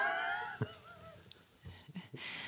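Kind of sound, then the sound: human body sound, yawning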